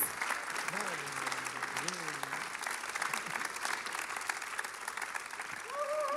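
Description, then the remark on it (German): Sustained applause from a large audience as a family comes onto the stage, a dense steady wash of clapping throughout, with a few voices calling and cheering over it. “Yeah, das ist euer Applaus.”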